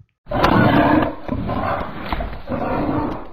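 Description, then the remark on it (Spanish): Deep, rumbling bear roars sound loud, three long growling bursts in quick succession with no one talking. “Cruzó los límites y llegó sin darse cuenta al campo de los osos, quienes lo devoraron de un mordisco.”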